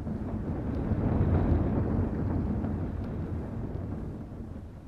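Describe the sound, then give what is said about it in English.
Rotating flails of a railway carriage washer, two on each side of the track, whirl strips of blanket cloth against a steel coach to beat off dirt loosened by acid and sprayed with water, heard from inside the coach as a loud, continuous deep rumbling and thrashing that stays steady throughout, with no voices. “As they whirl round, strips of blanket cloth fly out and flail the dirt off the steel coaches.”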